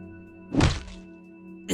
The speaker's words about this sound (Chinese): 透过车与车的缝隙，他看到李峰正拿着网球拍狠狠地往地上砸。不但球拍的框架已经断裂，连球线也断了。可即便这样，李峰还是用力地砸着，仿佛这不是一把球拍。